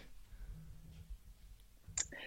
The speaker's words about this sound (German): Jetzt nimmt er nochmal ein Glas Wasser und atmet.